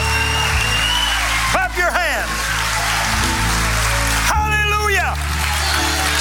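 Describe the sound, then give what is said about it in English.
A church audience claps steadily after a prayer of salvation, a dense, even patter of many hands, while loud voices shout or sing over it in two short bursts. “Let's clap our hands. Come on, clap your hands.”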